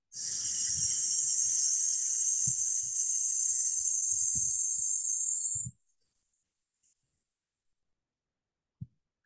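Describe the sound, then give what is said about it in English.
A long, steady hissing exhale pushed slowly out through the mouth as part of a breathing exercise, like letting air out of a tire, lasts about five and a half seconds, then cuts off into near silence broken by a couple of faint clicks. “And exhale, we're going to slowly through the mouth, making a hissing noise. So, very similar to letting air out of a tire.”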